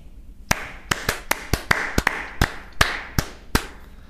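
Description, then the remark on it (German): Two people clap their hands to celebrate reaching 500 subscribers, in an uneven run of about twelve sharp, bright claps, slightly irregular in timing, with no talking. “So, und das andere, und das betrifft dich auch, Jetzt müssen wir beide einmal klatschen.”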